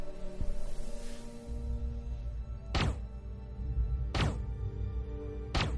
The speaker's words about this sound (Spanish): Dispara tres veces al cuerpo sin vida del hombre y baja el arma.